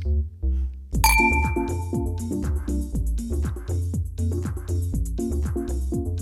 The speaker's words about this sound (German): lasst uns anstoßen.